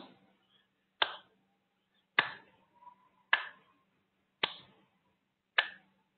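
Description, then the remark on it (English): Five sharp hand claps at a slow, steady pace of roughly one per second, each a crisp snap with a brief tail, heard alone with quiet between them. “It is me applauding. Slowly join me.”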